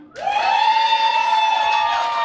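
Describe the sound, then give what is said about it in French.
A loud, sustained high-pitched whoop of cheering from an audience asked who has ever stolen cheese at the grocery store rises quickly and holds steady for about two seconds over a faint murmur of crowd noise; no clear clapping stands out. “Par applaudissement, qui a déjà volé du fromage à l'épicerie?”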